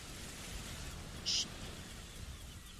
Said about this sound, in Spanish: En exclusiva, el ruido del mar.